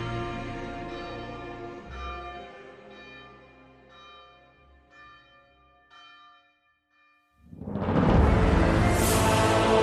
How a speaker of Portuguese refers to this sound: Os sinos badalavam intensamente, sinalizando o passar das horas. Era quase duas da tarde.